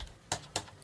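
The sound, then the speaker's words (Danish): Two crisp mechanical clicks about a quarter second apart, a Tesla glovebox latch snapping shut, fairly quiet with no one talking. “Og det kunne godt lade sig gøre, og det sagde ikke klik.”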